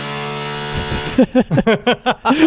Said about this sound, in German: Warst du das gerade oder? Nein, das ist mein Nachbar bohrt, glaube ich, gerade irgendwas in die Wand.